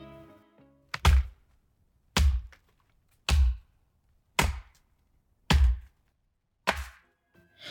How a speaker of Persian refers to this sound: پس تصمیم گرفت درخت رو قطع کنه کار سختی بود درخت خیلی بزرگ و تنومند بود اون با تبرش ساعتها به تنه درخت زد